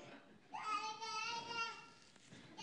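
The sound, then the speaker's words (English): A young girl in the audience lets out a long, high-pitched cheering shout for her father, lasting a couple of seconds, loud, then a brief trailing bit of voice at the end. “That's one of my little branches. She's cheering her daddy on.”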